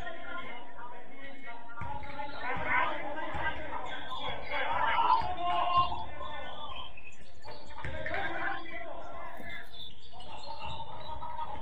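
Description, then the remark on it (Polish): A basketball is dribbled on a court: repeated sharp thumps amid busy arena noise and murmuring voices, moderately loud throughout. “dla mnie tam było dużo kozłowania, a mało koszykówki.”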